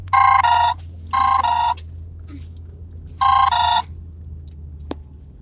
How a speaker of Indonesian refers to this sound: nah cuman nyokap gue telepon bos